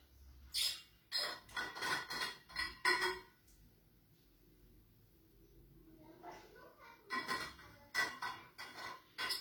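Someone handles a glass or bottle to take a sip of water: clusters of light clinks and rustly taps, a quiet pause, then more clinking and handling noises.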